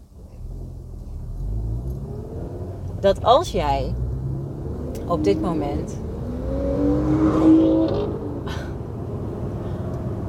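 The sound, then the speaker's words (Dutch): A car drives past with its engine revving loudly, a low rumble swelling to a rising roar near the end while a person keeps talking over it. “Hij rijdt even een auto voorbij, die vindt het leuk om stoer te doen.”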